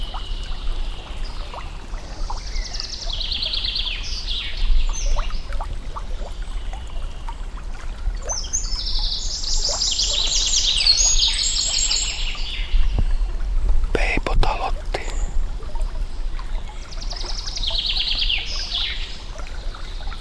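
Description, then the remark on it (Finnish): A Eurasian wren, Europe's second-smallest bird at about 10 cm long, sings several loud, rapid, trilling phrases separated by short pauses, over a steady low rumble of outdoor background noise. “Peukaloinen on parhaiten äänessä. Se on hieno lintu. Euroopan toiseksi pienin.”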